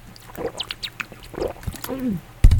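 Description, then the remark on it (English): Someone drinks Deer Park water live on air during a radio show: a few soft, wet gulps and swallows, a short murmured hum, then a sudden louder knock at the very end. “First uh, time this evening, I have to uh, live take a drink so I can continue to chat at you.”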